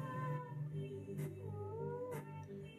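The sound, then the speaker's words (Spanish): A cat meows continuously in a long, drawn-out, wavering wail, fairly loud, with a couple of brief soft knocks in the background. “No, cállate, no, no, no, no, gato.”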